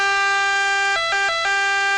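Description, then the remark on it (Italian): An emergency vehicle siren blares loud, holding a steady bright tone that briefly shifts pitch twice in the middle before returning, with no voices. “ma non queste sirene”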